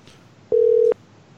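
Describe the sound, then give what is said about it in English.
A single steady ringback tone from an unanswered phone call, one short electronic burst lasting under half a second, heard clearly with no voices around it. “I want to see what about she's not going to pick up. You think she's going to pick up?”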